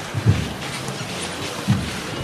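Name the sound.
wind rustling tree leaves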